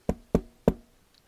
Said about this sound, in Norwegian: satt og kokkelerte ved kokeovnen og venta på at potetene skulle bli kokt, banka det på døra